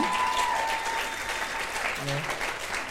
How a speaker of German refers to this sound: And one more time, let me ask everybody, will you please just give a clap offering to your worship team? Und könnt ihr bitte einen Applaus geben für das Lobpreisteam?